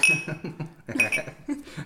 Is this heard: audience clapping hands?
no